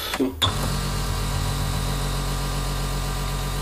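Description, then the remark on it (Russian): After a short clatter at the start, a venous drainage massage device, set to run for 19 minutes, settles into a steady, loud, low mechanical hum with a buzzing tone, running continuously without change. “Пациент лежит на этом аппаратике, и аппарат потихонечку удаляет застоявшуюся кровь из вен.”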